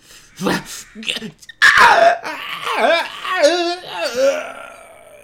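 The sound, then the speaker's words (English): A person's voice mimics the shrieks of dying zombie-like creatures: a loud burst of wavering, rising and falling screeches and wails, with no other sounds behind it. “You guys hear the screeching of those things under the floorboards as they go.”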